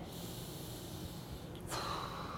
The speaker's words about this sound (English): And I'm going to let my head hang in my background naturally. And I'm just going to let gravity take over here and breathing in nice and deep.